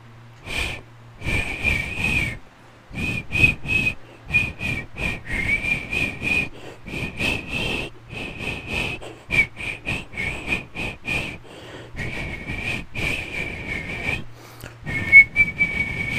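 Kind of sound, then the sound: human body sound, person whistling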